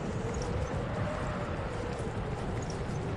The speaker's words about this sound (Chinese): 我倒觉得像大海，要是上面有水的话。刚才那声音听起来就像大海一样，那是风刮过灌木丛发出的声音。